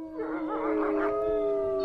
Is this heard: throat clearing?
no